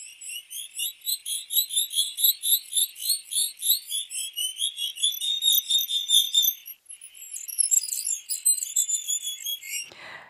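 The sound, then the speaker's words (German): Rapid strings of high-pitched chirping syllables from a greater sac-winged bat pup babbling, dense and rhythmic, continuing for about ten seconds with a brief pause partway through, then a soft thump at the end. “Das sind wirklich aneinandergereihte Silben, quasi stimmliches Übungsverhalten.”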